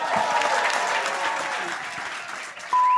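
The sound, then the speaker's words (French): Sustained applause from a large audience welcoming John Travolta, a dense, steady wash of clapping that fills the whole moment, with a faint tone emerging near the end. “Please give a great warm applause to Monsieur John Travolta.”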